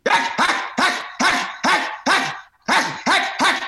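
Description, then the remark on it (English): A dog barks loudly and repeatedly, about nine sharp, forceful barks in a quick steady rhythm with one brief pause midway. “You can actually you see the, you see how much is going into the bark.”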